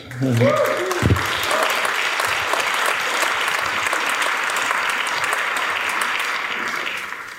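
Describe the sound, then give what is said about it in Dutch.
Steady applause from an audience at a book launch for Lumens 2 fills the whole stretch, a dense wash of many hands clapping at an even level, with a brief voice at the very start before the clapping takes over. “Geef hem een applaus.”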